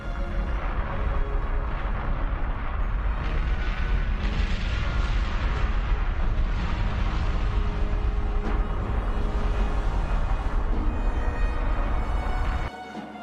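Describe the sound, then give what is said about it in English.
A massive volcanic eruption of Mount Hotenow, throwing out molten rock and ash: a huge, continuous roaring blast with deep rumbling and crackling bursts, loud and sustained for several seconds before cutting off abruptly. No voices. “massive explosion comes from Mount Hotenow, erupting in molten rock and ash.”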